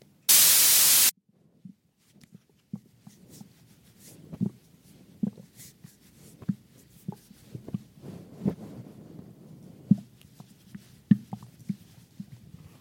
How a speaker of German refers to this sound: Äh, diese Geräusche sind Geräusche, die mein Magen macht und sie klingen nicht gut. Ebenso fühle ich mich auch.